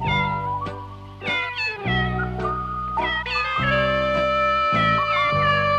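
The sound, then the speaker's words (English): A song made of cat meows from a Japanese film: a string of loud meows with rising and falling pitch, sung in a melodic rhythm over steady sustained musical tones, with no talking. “but there is a wonderful song featuring cat meows, which you'll hear now.”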